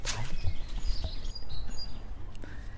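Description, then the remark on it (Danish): Birds sing outdoors in sunshine, a scatter of thin, high chirps and short whistled phrases over a steady low rumble of open-air background noise. “Ah, fuglesang.”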